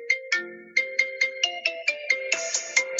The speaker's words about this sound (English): has a special ringtone